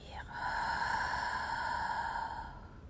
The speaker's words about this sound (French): On inspire et on imagine qu'on veut aspirer l'air par la bouche. tout en resserrant la gorge. Et à l'expire, on veut imaginer qu'on veut faire de la buée sur une vitre.